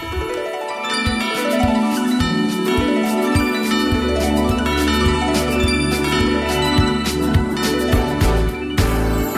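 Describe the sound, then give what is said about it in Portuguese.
A festive Christmas music medley plays steadily with bright jingling, tinkling bell tones over a melody, and a deeper bass line joins partway through. No voices are heard. “Estamos quase a terminar o nosso programa de hoje e já agora, já que estamos já neste espírito natalício, porque o Natal é isso mesmo, é compaixão, ficamos com este medley de Natal.”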